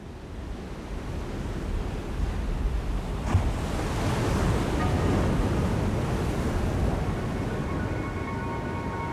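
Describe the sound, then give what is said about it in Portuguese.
Steady ocean surf washes continuously against the shore as the atmospheric intro of an album's first track, a broad rushing roar that swells gently midway, with a faint vocal drowned by the sea drifting in near the end. “Tem até um vocalzinho afogado pelo som do mar ali, mas nada que dê pra chamar de música.”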